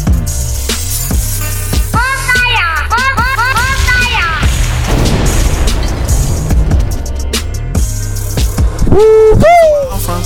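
A loud DJ bomb explosion sound effect bursts into a dense, rumbling blast midway, surrounded by booming low thuds, sweeping whistle-like tones and shouted vocal snippets layered in a busy mix.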